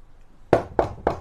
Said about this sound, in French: que quelqu'un tape à la porte. Il ouvre